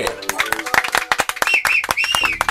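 A burst of lively applause on the radio station 93.5 Red FM welcoming a guest, many hands clapping in quick irregular claps, with voices whooping and cheering over the top throughout.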